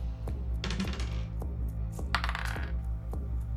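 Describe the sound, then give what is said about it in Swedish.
Dice are rolled for initiative, clattering and tumbling across a hard table in two quick bursts of bright, sharp clicks, with scattered taps between them over a low steady hum and no voices. “Slå initiativ.”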